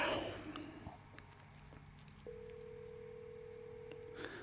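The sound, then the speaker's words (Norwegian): A phone call to someone abroad rings out with a single steady ringback tone lasting about two seconds, heard faintly through a handset with low background hiss and no one answering. “Ok, men eh, jeg tenker vi bare legger på nå, så får vi håpe at han ringer tilbake når han ser at vi har ringt, da.”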